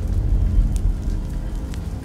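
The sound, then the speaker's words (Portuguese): A steady, low roar of a burning forest fire in the Amazon fills the scene, with a few sharp crackles and pops breaking through now and then. No voices are present. “O fogo na mata expõe uma realidade dolorosa no pulmão do mundo, a Amazônia.”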